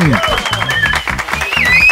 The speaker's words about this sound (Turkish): Bu dijital alkış efekti var ya bu arada.